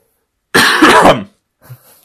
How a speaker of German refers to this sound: Ich muss kurz husten.